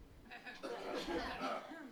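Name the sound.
cough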